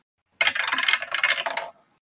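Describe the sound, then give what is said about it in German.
A die clatters and tumbles across a hard tabletop for about a second, a quick burst of bright rattling clicks that stops abruptly as it lands on a 4. No voices are heard. “ich habe eine 4 gewürfelt und habe eine plus 7 auf Hit-DC.”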